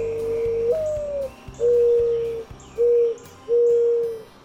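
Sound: mourning dove cooing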